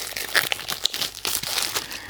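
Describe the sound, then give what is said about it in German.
Crisp plastic foil wrapping crinkles and rustles continuously for a couple of seconds, with sharp bright crackles and a few louder snaps scattered through the irregular rustling. “Ist äh, noch ist eine Folie eingepackt.”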